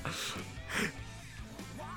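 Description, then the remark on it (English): A drawn-out, breathy yawn with a voiced, sighing tone. It swells and fades over a couple of seconds, moderately loud, with a quiet music-like hum underneath. “I understand why you're yawning because the song is boring as hell.”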